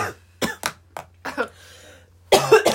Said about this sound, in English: So, you know, you know how sometimes you wait for the airplane to pass. Just wait for the cough to pass.